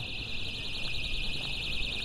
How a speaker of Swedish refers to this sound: Här är ett larm som är på i bakgrunden. Otroligt irriterande.